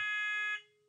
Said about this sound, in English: that's the fire alarm going off. It happened yesterday too. Fantastic. Yeah. Should we be running or should we be?